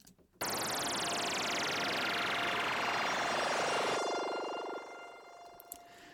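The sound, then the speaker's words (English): A synthesized bubbling effect from the ANA 2 synth starts abruptly and holds steady and loud for about four seconds, panning from left to right, with a sweeping tone gliding down in pitch before the sound thins out and fades toward the end. “So then further, I've got this bubble effect noise, and this sounds like this.”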